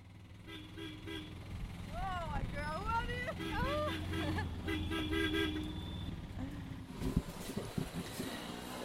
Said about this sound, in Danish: Vi tog en Otto, en af de små gule scootertaxier, hen til hospitalet Danish Mission Hospital.